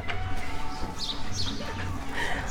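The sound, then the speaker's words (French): Small birds chirp in short, scattered bursts over a steady low rumble of background noise, the calls fairly faint. “Par contre, c'est vrai que les petits oiseaux, c'est plus agréable.”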